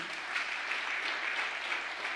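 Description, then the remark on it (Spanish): Sustained applause from a crowd for those who have decided for God, a dense, steady wash of many hands clapping that stays loud and even throughout, with no voices standing out. “Vamos, déles aplauso fuerte.”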